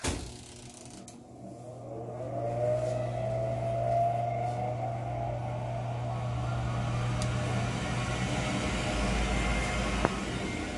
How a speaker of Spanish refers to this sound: Sí, es el sonido del horno. ¿Por qué lo prendo? Bueno, en la panadería hay que tener una temperatura de donde estemos cocinando o haciendo el pan entre unos 70 a 75 grados Fahrenheit.